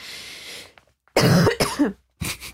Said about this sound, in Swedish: det är Pavlovs hundar. Så fort man hör det så måste man tvångsmässigt hosta.